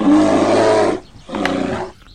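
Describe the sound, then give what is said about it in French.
A bear roars twice, loud: a long, rumbling growl of about a second, a brief pause, then a second, shorter roar. No one speaks. “Attention aux ours.”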